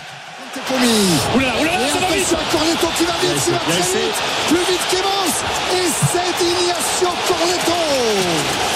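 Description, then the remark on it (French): A loud stadium crowd at a rugby match between France and Argentina whistles in disapproval after France's 12–17 defeat, a dense, sustained wall of overlapping whistles and jeering voices that swells in after a brief quieter start and never lets up. “Les sifflets que vous entendez, une claque pour Bernard Laporte et pour le talonneur Raphaël Ibanez au micro de TF1.”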